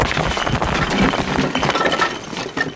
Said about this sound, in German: In dem Moment bricht der Boden unter ihren Füßen ein.